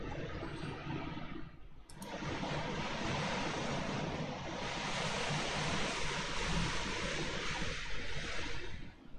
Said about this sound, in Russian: Это горизонтальный дождь идет, что ли? Нихуя еще и ураган.